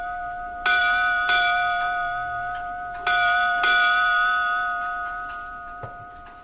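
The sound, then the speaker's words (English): A ship's bell rung eight times, struck in pairs: two quick clangs, a pause, then two more, each ringing tone hanging and slowly fading. Clear, with no voices. “And those of you that don't know, eight bells was the historical significance to when men were buried at sea, both Navy and pirate, and that's why we call it eight bells.”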